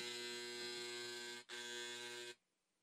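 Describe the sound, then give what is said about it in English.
A loud, harsh electronic buzzing from a heater's alarm in a small studio on a freezing day sounds steadily, cuts out for a split second, resumes, then stops abruptly. No one speaks over it. “Okay, and this is our, this is the alarm of the eat that okay.”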